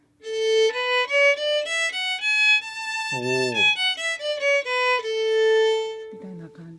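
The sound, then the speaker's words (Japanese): A violin bows an A-to-A scale (la, si, do, re, mi, fa, so, la) up one octave, note by note, then steps back down, each tone sustained. A short vocal exclamation briefly overlaps midway. “で、うん、これはまあラシドレミファソラと弾いたんですけど、はい、えこういう音階をいろいろあの弾くこともできますね。”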